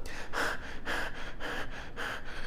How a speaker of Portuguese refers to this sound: Isso traz um medo grande para a gente de nós. E dentro e junto com esse medo vem a respiração curta.